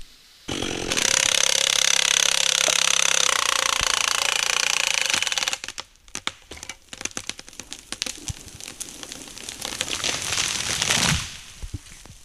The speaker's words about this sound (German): Im Wald bei Konradswiese ist das laute Geräusch von Motorsägen zu hören.